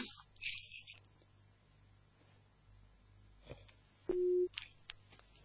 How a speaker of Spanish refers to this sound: Me parece que se nos, se nos cortó el profe. Eh, un pitido, ¿no? Sí, sí, sí, sí.